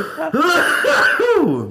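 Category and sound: human body sound, coughing and throat clearing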